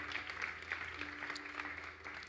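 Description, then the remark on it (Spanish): A church audience breaks into steady applause, a dense, continuous patter of many hands clapping at an even level, with a low hum running underneath and no voices standing out. “Alguien que le glorifique acá con un gloria a Dios, con un fuerte aplauso al Rey.”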